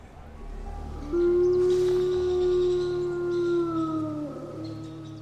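wolves howling

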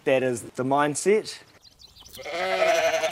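sheep bleating

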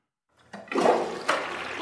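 toilet flushing

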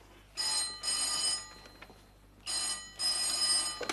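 telephone ringing

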